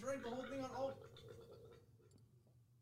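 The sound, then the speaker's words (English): A strained, croaking throat noise of someone who drank a whole shot and is straining to force up a burp, starts with a tense voiced groan and fades into a rough, gurgling rasp over a few seconds. “why it sound like someone was in your throat trying to get out?”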